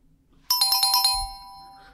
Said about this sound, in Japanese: まあ、正解。え正解かな。もうピンポン鳴らしちゃったから正解にしようか。